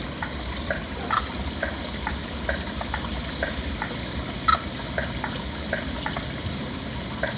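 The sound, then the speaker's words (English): A frog call played from the Frog ID app on a phone speaker: a string of short, clicky pulses repeating every half second or so, over a steady watery, hissing background and a constant high hum. “we're going to produce one using the Frog ID app, and we're going to see if we get one in return”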